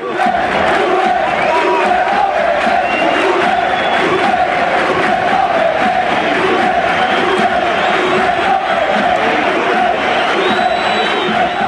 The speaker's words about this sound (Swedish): Om vi stannar i Spanien så är det skanderandet från på Sevillas hemmaplan som etsar sig fast starkast ändå.